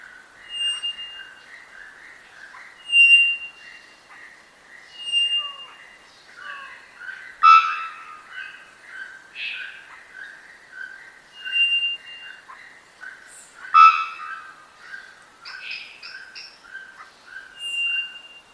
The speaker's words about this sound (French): c'est le bird, c'est l'oiseau qui ferait le son le plus puissant, en termes juste de puissance, de décibels du monde